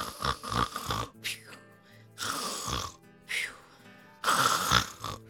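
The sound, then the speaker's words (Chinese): Loud, rasping snores repeat in a slow rhythm, each long rumbling breath swelling and fading before the next, with brief quieter gaps between them; likely a voice imitating snoring. “而且他连打呼的声音都超级有力哦，”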